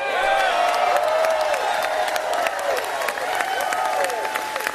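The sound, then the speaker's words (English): A large crowd cheers and applauds steadily after Rick Perry, former governor of Texas, says there's nothing wrong in America today that a change in leadership can't make happen, with dense clapping, rising shouts and whoops sustained throughout at a loud, even level. “There's nothing wrong in America today that a change in leadership can't make happen, and they all cheered it. The cheering went on and on.”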